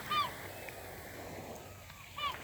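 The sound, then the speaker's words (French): Two brief squawking gull calls, one at the start and another near the end, over a soft, steady wash of lapping water on a seaside foreshore at 9 in the morning, with the sea flat calm. “Les mouettes en font sonore, enfin pardon, les goélands.”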